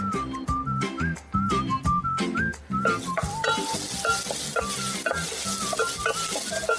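A little garlic sizzles in olive oil in a pan, being lightly fried for a soup, a steady crackle that swells after a few seconds, while a light whistled tune with bass plays throughout.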